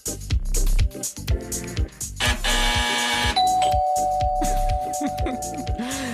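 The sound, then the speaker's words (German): A bright ding-dong buzzer chime rings out clearly, with sustained tonal notes over a busy mix of chatter and background sound, people talking and laughing around it. “Gott ist der Buzzer hot”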